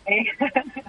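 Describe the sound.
A radio broadcast plays in the background of a phone line, its voice thin and band-limited, rising and falling in short bursts for about a second.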